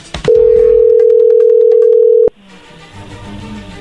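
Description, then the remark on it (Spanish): A telephone dial tone as a call is being dialed: one steady, loud, low-pitched hum that holds for about two seconds after a short click, then cuts off abruptly into faint background noise. “Ahí está marcando, no hagan ruido.”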